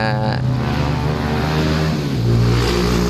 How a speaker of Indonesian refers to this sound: ya ya motor lewat